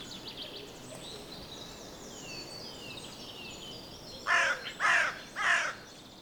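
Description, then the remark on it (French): A crow caws three times in quick succession, harsh and fairly loud, over a soft background of chirping birds and faint ambient noise. “Et celle qui graille ainsi pour attirer votre attention, c'est peut-être la sœur, la cousine ou l'arrière-petite-fille de celle qui fut piquée d'une épine à la patte.”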